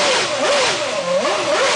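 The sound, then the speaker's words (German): A loud Renault engine revs up and down repeatedly, its pitch rising and falling in quick surges over a steady roaring hum, continuous with no talking. “Am Anfang war es, am Anfang schon, aber jetzt am Ende war es nur noch einfach hochdrehen.”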